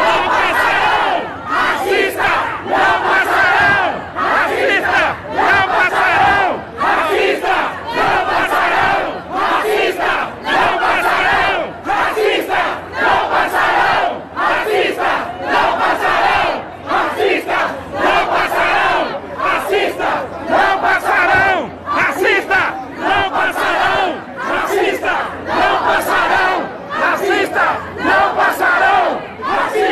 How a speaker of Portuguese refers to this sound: coloca por favor o vídeo da reação das pessoas no metrô de São Paulo hoje de manhã.